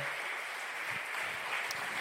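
A live audience claps steadily, a dense, crackling wash of many hands at a fairly even, moderate level for about two seconds, with no voices standing out.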